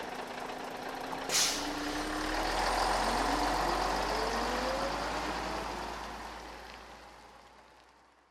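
A bus rumbles and slows as it stops at a bus stop, with a sharp hiss of air brakes releasing near the start, then a steady engine drone that fades as it pulls away. No one speaks.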